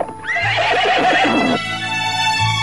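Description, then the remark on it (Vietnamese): Two horses pulling a carriage, struck by pebbles, let out a loud, anguished neigh that quavers and breaks, then fades into a strained, lingering whinny as they collapse, clear with no one speaking. “bắn mù mắt hai con ngựa kéo cổ xe thứ ba hòn sỏi xuyên vào ốc hai con ngựa hí lên một tiếng thảm thiết rồi gục xuống”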